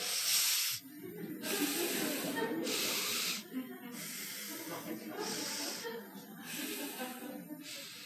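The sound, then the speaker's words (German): Alternate nostril breathing (Wechselatmung) for a yoga exercise, done without using the fingers: a steady rhythm of airy, hissing breaths through the nose, about six in eight seconds, moderately loud over a low murmuring background. “Also habe ich dort gelernt, Kapalabhati zu üben und Wechselatmung auch.”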